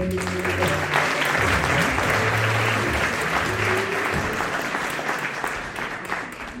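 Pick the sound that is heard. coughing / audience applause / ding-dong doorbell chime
audience applause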